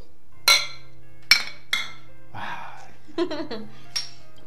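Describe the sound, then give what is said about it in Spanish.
Glasses clink together in a toast: about four bright, ringing taps spaced unevenly across a few seconds, with brief murmured voices in between. “Ah, pero antes que nada, producción, salud, por favor.”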